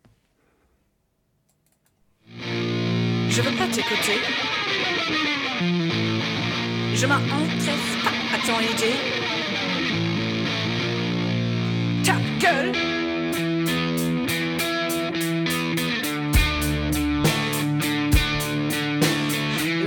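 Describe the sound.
A punk band song plays on the radio, kicking in after a second of silence: loud, dense distorted guitars and drums drive steadily under shouted French vocals, with sharp repeated hits toward the end.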